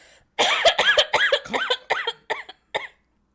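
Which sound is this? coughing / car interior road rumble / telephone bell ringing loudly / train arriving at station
coughing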